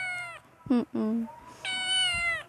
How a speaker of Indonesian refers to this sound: Podcast ini isinya tentang suara kucing di rumah dan beberapa pemikiranku tentang dunia perkucingan.